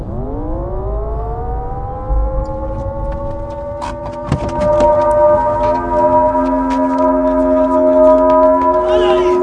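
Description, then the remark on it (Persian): An air raid red alert siren winds up from a low pitch to a high, steady wail and holds it loudly throughout, with scattered faint clicks and crackles underneath. “توجه توجه علامتی که همکنون میشنوید لعنت بر پدر و مادرت صد خطر یا وضعیت رمز است”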